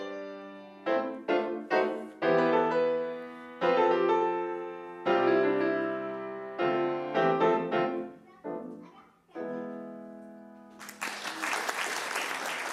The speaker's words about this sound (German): die einen Walzer von Grieg auf dem Klavier spielt, hagelt es am Ende großen Beifall.